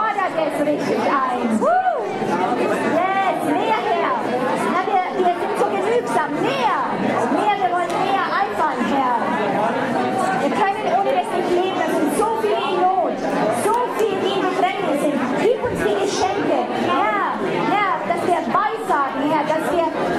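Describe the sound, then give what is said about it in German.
Many voices of an audience pray aloud at once in a steady, overlapping murmur, continuing for the whole stretch with no single voice standing out. “Und fangt an, da wirklich so zu begehren, laut zu werden und äh, ruft es herzu, holt es euch vom Himmel, holt es euch vom Himmel und freut euch dran.”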